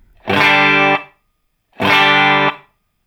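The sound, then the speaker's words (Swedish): Two sustained, distorted electric guitar chords ring out loudly, each lasting under a second with a short reverberant tail trailing off after it, separated by a brief pause; the room setting of the impulse response is turned up to 12, adding a little room sound. “Jag drar upp den till 12. Ni hör att det blir lite rum.”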